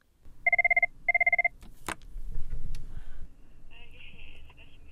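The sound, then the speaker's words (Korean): A telephone at a Lifeline crisis counselling line rings in two short, warbling bursts on a snowy day, followed by a sharp clack as a volunteer counsellor picks up the receiver, then faint murmuring voices and background noise. “자리에 앉기가 무섭게 전화벨이 울리기 시작합니다.”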